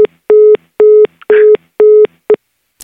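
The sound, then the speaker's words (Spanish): A telephone busy signal after a hang-up: a steady, mid-pitched tone pulsing on and off in an even rhythm, about six loud beeps, with a brief burst of noise over one of them. “Ya te colgo.”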